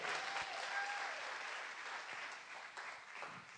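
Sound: audience applause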